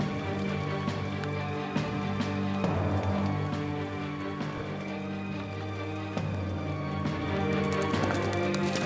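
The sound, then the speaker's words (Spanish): Rapid, steady clip-clop of horses' hooves as unknown riders on horseback gallop in an isolated wooded area to seize Luther's carriage, over a sustained, droning musical backdrop, with no talking. “En una zona boscosa aislada, el carro de Lutero es tomado por jinetes desconocidos.”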